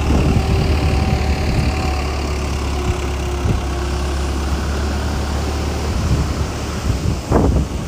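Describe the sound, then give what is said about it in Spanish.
Ocean surf rolls steadily beneath a constant rush of wind, a broad, loud wash of noise with a low rumble, swelling slightly toward the end. No one speaks. “Cierra tus ojos y solamente Permítete sentir este sonido de fluidez del mar, acompañado del viento.”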